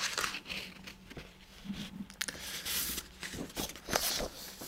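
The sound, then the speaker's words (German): Soft rustling and crinkling of paper documents being leafed through, in a series of brief irregular swishes and crackles with no talking. “Ähm, ich gucken, muss nochmal gerade in meinen Unterlagen blättern.”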